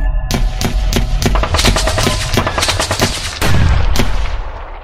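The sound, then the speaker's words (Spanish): Loud, sustained gunfire at a temple where a community had gathered to pray, during the Acteal massacre in Chiapas, Mexico, on 22 December 1997: dozens of sharp cracks in rapid, irregular bursts, some overlapping like automatic fire, over a dense rumbling background, with no one speaking. “tu mamá te dice, que los monstruos han llegado al templo, e intentan entrar a este pero las puertas son bastante fuertes y resistirán, en efecto los monstruos jamás podrán entrar, pero las balas sí.”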